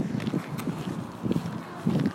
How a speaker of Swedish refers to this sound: om det blåser, om det blåser jättemycket nu så förlåt. För jag kan inte kontrollera blå, blåsten. Det är roligt att spela in utomhus.